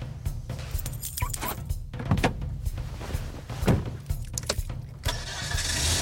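The engine of an old police patrol car, no longer used for patrol, turns over and rumbles steadily, with a few sharp clunks and rattles along the way, then rises into a louder, hissing rev near the end.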